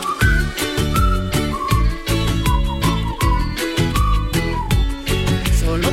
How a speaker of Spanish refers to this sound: Silbando al comenzar la mañana con …, ….